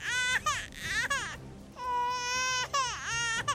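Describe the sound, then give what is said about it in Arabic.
A newborn baby boy cries loudly just after birth on a cold night at about 1 a.m. on 4 January 1643 in Lincolnshire, eastern England, with a series of piercing, wavering wails that rise and fall in pitch, separated by brief gasps for breath. “لقد وضعت الآن مولودا ذكرا اختير له اسم إسحاق”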